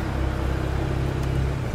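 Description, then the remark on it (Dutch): A stationary car engine with a broken exhaust idles with a loud, rough exhaust rumble, a steady low throbbing drone that holds evenly throughout, with no voices. “Dat is al een pak minder lawaai als de auto stilstaat, hè?”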